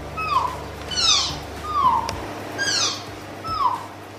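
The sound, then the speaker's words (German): A newborn male tapir calf at a zoo gives a series of five high, thin squealing whistles, each sliding downward in pitch, repeating roughly once per second, clear with no voices. “Und so klingt ein Tapir.”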